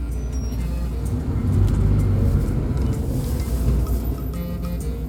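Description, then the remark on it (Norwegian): A bus engine rumbles steadily with deep low-frequency drone, heard aboard the bus in motion on its way to NRK at Marienlyst, with a slight swell in intensity midway and faint rattles above. “Tidsmalingen blir nøyaktig, og jeg rekker heldigvis bussen som tar meg til NRK på Marienlyst.”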